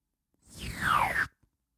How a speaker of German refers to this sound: Mein Tesafilm.